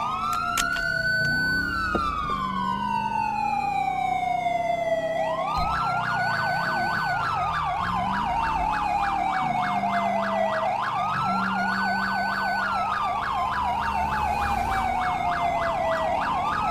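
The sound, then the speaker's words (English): A Los Santos police car siren in a video game wails continuously, sweeping up and down in long cycles with a rapid warbling phase, loud, with engine rumble beneath and no talking. “That's a Los Santos police car!”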